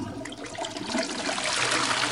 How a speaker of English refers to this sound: Go on, do the super duper flush. Do yeah, do the aggressive flush.